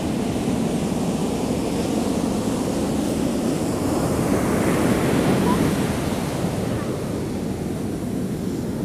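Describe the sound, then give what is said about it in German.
Steady roar of sea surf washing onto a sandy beach, a broad continuous rush that swells slightly midway, with some wind buffeting the microphone and no voices. “Ja, für alle Wasser, Meer, Wellen, Rauschen, Fans unter euch. Gibt ja, jetzt noch mal ein paar Minuten davon im Hintergrund.”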